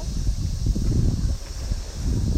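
Low, churning rumble of sea waves breaking against rocks and concrete rather than a sandy beach, on a hot day, a steady wash of surging noise with small bursts, no voices over it.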